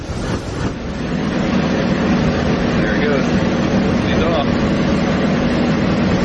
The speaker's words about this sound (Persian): این صدای انفجار یکی از فضاپیماهای ناسا هنگام بازگشت به زمین است.